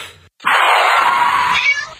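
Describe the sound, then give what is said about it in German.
A single loud, drawn-out meow of a cyborg cat being let out of a delivery van onto a street near a Soviet facility on Wisconsin Avenue, Washington, D.C., lasting over a second, preceded by a brief soft noise and a short pause, with no talking. “Ein unauffälliger Lieferwagen hielt an der Straße und die Katze wurde herausgelassen.”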